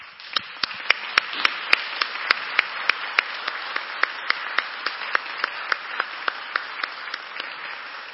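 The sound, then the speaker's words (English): A crowd applauds graduating high school seniors steadily for several seconds, a dense wash of clapping with sharp individual claps popping out in a fairly regular rhythm above it. “Let's give our seniors a round of applause.”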